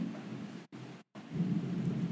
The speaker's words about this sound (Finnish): Me äänitetään tätä ukkospäivänä ja tuolla Salamoija Ukkostaa